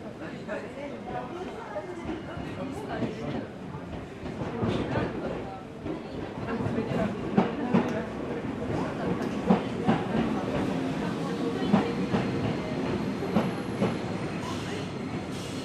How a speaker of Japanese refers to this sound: お待たせいたしましたまもなく電車が到着いたします危ないですから黄色い線の内側まで下がってお待ちください